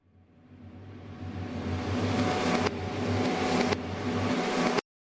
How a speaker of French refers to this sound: Ensuite, donc, bah, on inverse la bande hein, euh, pour qu'elle soit jouée à l'envers, et donc ça va provoquer un effet d'aspiration. Donc ça donne quelque chose comme ça.